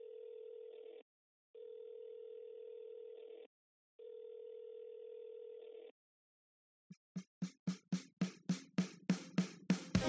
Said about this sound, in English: Uh, and it is this point your phone begins to ring.